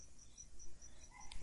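Crickets chirp in a steady, repeating pulse against otherwise quiet air, soft and thin, before a brief louder burst of sound cuts in at the very end.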